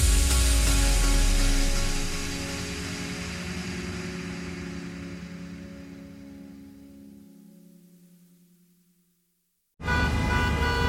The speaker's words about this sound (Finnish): Jussi on jumahtanut aamuruuhkaan. Jälleen kerran tööt, tööt ja brum brum.